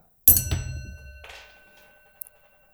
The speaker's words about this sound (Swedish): sen har jag skaffat en sån här mongolisk kopp som jag har en liten tärning i så att jag kan slå den här tärningen och så låter det så här.